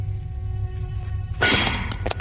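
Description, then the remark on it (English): A sledgehammer strikes the blunt end of an iron drill held against a rock face in a cavern, boring a drill hole: one sharp, ringing metallic clang, then faint knocks fade out over a steady low rumble. Fairly loud, with no voices. “I heaved the iron drill to the rock and held it in place, while Bangman struck the blunt end with a sledge.”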